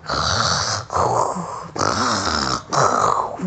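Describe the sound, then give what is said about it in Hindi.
Leon the lion roars in four loud, rough bursts, each lasting under a second with brief gaps between them. The growls are harsh, with no talking. “वैसे उसको जो है लियोन की दहाड़ सुनाई पड़ी”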